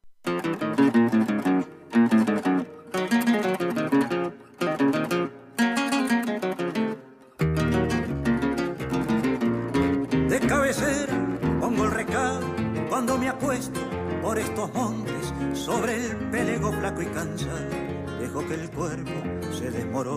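A song plays loudly, opening with a few punchy stop-start chords separated by brief pauses, then settling into a full, steady band arrangement with a melodic voice carried over the instruments.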